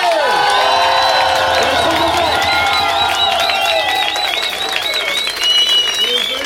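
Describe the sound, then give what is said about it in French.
A concert audience cheers and applauds loudly for a band's first album, with sustained clapping and high, wavering whoops and shouts layered over a dense wash of crowd noise throughout. “Faites du bruit pour notre premier album, s'il vous plaît”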